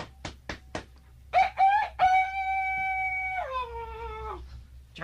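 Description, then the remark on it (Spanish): A rooster crows loudly, opening with a few clicks and short rising notes, then a long sustained crow that drops in pitch near the end. No one speaks. “Ah, óigalo, óigalo, para que lleve pues una buena garantía del gallo.”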